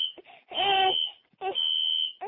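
A fire alarm shrills with a steady high-pitched tone through the whole clip, nearly drowned at times by loud, wailing, cry-like vocal sounds in two bursts.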